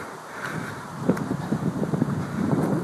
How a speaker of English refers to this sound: sorry if it's windy